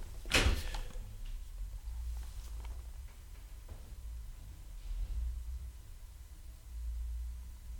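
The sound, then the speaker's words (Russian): A sharp knock on a door rings out early as someone tries to knock at the speaker's door and gets no answer, followed by a few fainter taps spaced apart, with a low rumble underneath and no one speaking. “вынужденная пауза была из-за того, что кто-то пытался постучаться ко мне в дверь и не увидел там никакого, не услышал там никакого отклика, потому что я был э, в записи, и просто не услышал”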